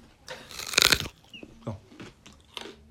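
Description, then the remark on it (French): A loud crunch of biting into a raw, frost-sweetened carrot from Quebec, followed by a few softer, scattered chewing crunches. No one speaks. “Mais là, je vais croquer.”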